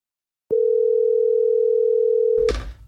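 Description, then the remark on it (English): A single steady electronic ringback tone of an outgoing phone call hums for about two seconds, clear, then cuts off with a short rustling click as the line connects. No one speaks. “Pick up. Pick up. Please pick up.”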